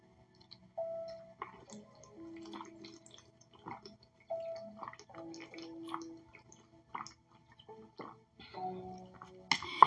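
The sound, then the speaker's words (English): Someone drinks water, with a run of wet gulps, swallows and small clicking mouth sounds spread unevenly across the stretch, ending in a louder slurp. “So flush that down with water and to be mindful next time. I said, okay, God, so let me drink this water real quick, okay?”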